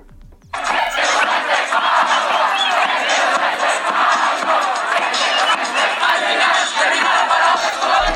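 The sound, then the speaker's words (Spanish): A huge street crowd of thousands of Chileans on the Alameda in Santiago, Chile, roars and cheers celebrating Gabriel Boric's presidential election victory, a dense, sustained wall of shouting voices that swells in abruptly after a brief quiet start and stays loud throughout. “en la Alameda de Santiago, miles de chilenos acudieron para celebrar la victoria”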